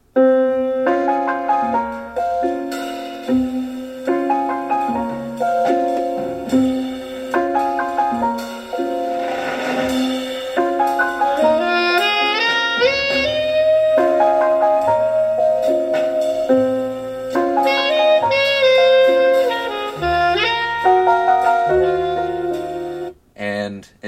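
A slow jazz ballad plays at a steady, moderate level, with a lyrical lead melody of long held notes over soft chords and a low bass line. No one speaks.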